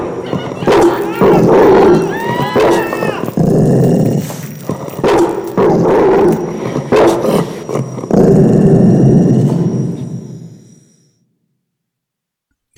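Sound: large dog growling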